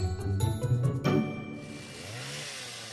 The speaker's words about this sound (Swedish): Alltså det heter så här... Boom, boom, boom. Motorsåg. Chainsaw.